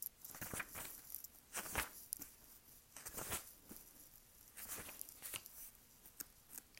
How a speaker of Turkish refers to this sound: Şimdi bakalım orada ruhsal annelerle ilgili kısmı bulabilecek miyim? sayfa çevirişimi duyuyorsun. Bizde her şey gerçek zamanlı.